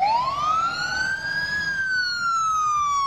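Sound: fire engine siren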